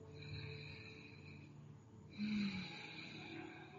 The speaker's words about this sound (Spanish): Así que ya estamos todos listos, vamos a dar inicio y para eso tomen una profunda respiración.